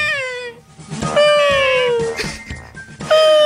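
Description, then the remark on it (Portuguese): A person imitates a cat, letting out several drawn-out, whiny meows in a row, fairly loud, with no other talking. “Imitar uma gaivota. Imitam o Serginho Groisman na. A na gaivota, não, um gato.”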